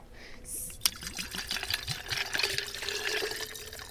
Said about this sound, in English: Okay, just go on and pour the whole bottle in there. Yep. How many ounces is that? That is a 200 milliliter.